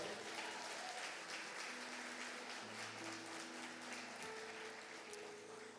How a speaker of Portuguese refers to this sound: Aplauda o Senhor.